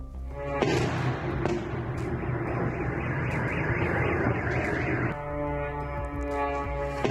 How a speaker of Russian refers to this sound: В Клинцах в Брянской области сбили украинский беспилотник. Момент э, э взрыва попал как раз э, на камеры очевидцев.